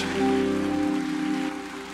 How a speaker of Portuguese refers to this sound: Aplauda bem forte ao Senhor e vamos adorar a Ele